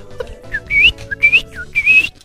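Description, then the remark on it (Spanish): A person whistles an imitation of a male bird's courtship song to attract a female: three rising, warbling phrases, each preceded by a short low chirp, fairly loud and clear with no talking. “Y cantan y es, Y ahí vemos al pajarraco cantando y haciendo desmanes para llamar la atención de la hembra.”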